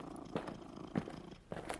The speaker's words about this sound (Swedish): Där spinner han oavbrutet tills det kommer fram.